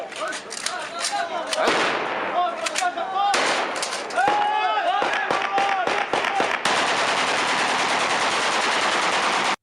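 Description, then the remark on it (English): Rapid bursts of fully automatic gunfire shooting at birds crackle sharply over a busy, hissing background with voices and whoops, followed by a steady loud wash of noise in the final seconds. “This guy just refuses to put two hands on his gun when he shoots it.”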